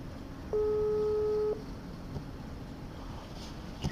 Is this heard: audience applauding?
no